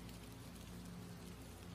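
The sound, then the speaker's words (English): Steady rain washes down a large, thin glass window, a soft, continuous hiss of water with no breaks or individual drops standing out, fairly quiet and even throughout. “Excited to look out into the rain and possibly see another human being, I quickly walked over to the alcove, finding the large, thin glass window.”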